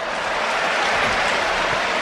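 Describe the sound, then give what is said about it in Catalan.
A large stadium crowd at an Espanyol football match applauds player Ramon steadily, a dense, continuous wash of clapping that holds at an even, fairly loud level for the full two seconds, with no one speaking over it. “Avui Ramon pot fer el que vulgui que l'aplaudiran.”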